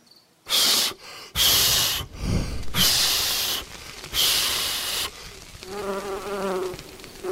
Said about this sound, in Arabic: ساحول نفسي الى دبور قارص لاشتت انتباه هذا القزم المتكبر فيفشل في عمله يوه من اين اتى هذا الدبور اللعين